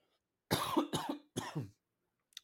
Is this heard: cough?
yes